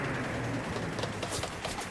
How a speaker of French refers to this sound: Les islamistes s'avançaient sur la route, les coups de feu se rapprochaient.